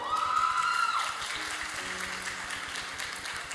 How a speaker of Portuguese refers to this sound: Uau! Uma salva de palmas para o acampamento.